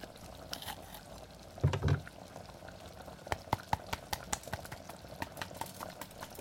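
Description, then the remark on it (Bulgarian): A pot of stew simmers steadily, left for 5-6 minutes, with soft bubbling and scattered small pops and ticks across a continuous low hiss, plus a brief louder burble near the start. Moderately quiet, with no talking. “Оставям го така за 5-6 минутки да си поври и лека по лека започвам да добавям мини топченцата и пържения зеленчук, с който започнахме.”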